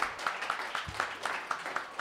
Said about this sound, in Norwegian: Yes, Stor applaus.